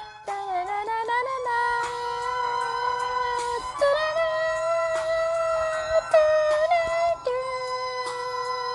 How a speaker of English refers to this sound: Sounds like a whistle in the beginning.